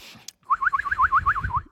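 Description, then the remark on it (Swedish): A man whistles a quick, wavering trill, about nine rising-and-falling chirps in a row, trying to imitate a birdcall, with a low rumble beneath it. “Jag lät nu som en snubbe som, som visslar och inte som en fågel.”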